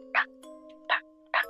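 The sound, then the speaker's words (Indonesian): A voice imitates knocking on a wall with three short, sharp "tok" sounds, the first two close together and the third after a brief pause, over a faint steady hum. “terus suara ketok ketok tok gitu”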